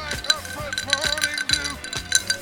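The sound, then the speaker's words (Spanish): Ice cubes in a glass of Matusalem rum and Coke clink lightly against the glass in a few quick, scattered taps, partly buried under loud music with a steady bass beat. “Son los este, hielitos de mi ron con coca, Matusalem.”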